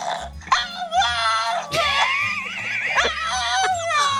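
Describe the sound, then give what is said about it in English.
A pet named Dexter screams in loud, drawn-out, wavering wails that run almost continuously, breaking into several rising and falling cries, while lower rumbling noises pulse underneath from another pet, Dot, who is harassing him. “he gets jealous and doesn't want you to play with Dot. Oh, it just and, crushes his soul. And so he'll scream.”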